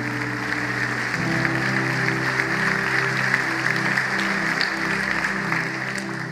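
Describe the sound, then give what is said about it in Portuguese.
A church audience claps steadily as an applause to the Lord, a dense, sustained wash of applause lasting several seconds, with a low musical drone and held chords sounding underneath. “Alguém pode dar um aplauso ao Senhor neste lugar?”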